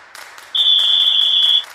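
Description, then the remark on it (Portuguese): A short intro jingle for the "first quarter" segment: a crowd roars and claps throughout while a single steady, high-pitched whistle tone rings out loudly for about a second in the middle. “chegou a hora de rolar a nossa vinheta do primeiro quarto”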